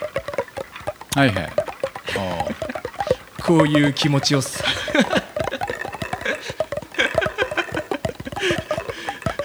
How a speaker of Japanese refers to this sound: これ竹これ全部笛の音です、えこのギーギーってんのはこれあの笛をこうやってあの塔が巻いてある笛をこうやってこす